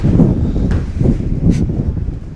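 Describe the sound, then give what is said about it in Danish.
Wind buffets the microphone in a steady, rumbling roar, heavy in the low end and fluctuating in gusts, with faint rustling or scuffing sounds mixed in and no voices. “det blæser. Man kan høre, det blæser.”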